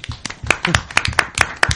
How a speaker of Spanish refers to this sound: Un aplauso.